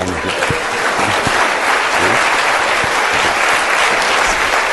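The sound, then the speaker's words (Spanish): Sustained audience applause, a dense steady wash of many hands clapping at an even loudness for about five seconds, with faint voices mixed in underneath. “Aplauda, por favor, es muy bueno.”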